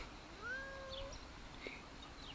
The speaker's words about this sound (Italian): mi si sta avvicinando un gatto che mi, si, mi sta miagolando, si sta avvicinando come se fosse una tigre che mi vuole sbranare, ma in realtà è un piccolo gatto. Forse si sente mentre miagola.